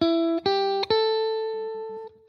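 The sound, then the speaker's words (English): Three sustained electric guitar notes played one after another as a basic guitar solo sound, each stepping slightly higher, the last ringing out and slowly fading. Clear, with no talking. “Now, what I've done there is I'm taking these three notes here,”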